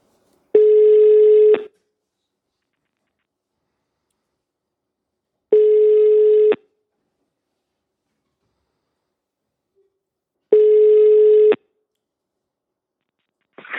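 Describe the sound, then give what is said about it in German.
A phone line's ringback tone on an outgoing call placed from Mürzzuschlag during a talk about bees: three steady, one-second beeps spaced about five seconds apart, clear, with silence between and the start of a fourth at the end. “Und ich habe gesagt, na, dann werden wir doch am besten äh, bei unserem Bienengespräch in Mürz Zuschlag telefonieren und jetzt schauen wir, ob das Ganze funktioniert.”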